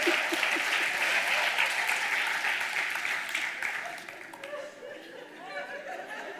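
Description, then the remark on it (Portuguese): A crowd applauds a pastor in sustained, dense applause that gradually fades, with scattered chatter and a few chuckles rising as the clapping thins out. “Uma salva de palmas”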